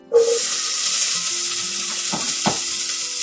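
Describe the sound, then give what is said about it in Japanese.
Roughly chopped onions hit a hot pan while curry is being made and sizzle loudly, a steady bright crackling hiss that starts abruptly and continues throughout, with a couple of soft stirring scrapes near the end. “はい、これ今玉ねぎの音ですね。”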